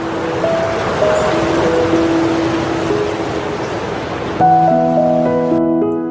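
Steady hiss of rain falling across a street in Seattle, USA, one of the rainiest cities in the country, with soft chiming musical notes drifting over it that grow fuller and brighter in the last couple of seconds. No one speaks.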